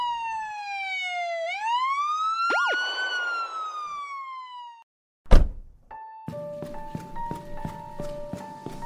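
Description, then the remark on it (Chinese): A police siren wails with a rising and falling pitch, then cuts off as three police cars stop at the gate of a luxury mansion in suburban Sanhe; a sharp thunk like a car door follows, and then faint footsteps and shuffling under soft steady tones. “不过，在豪宅门院前停了三辆警车，也暗示着即将展开的不平静。”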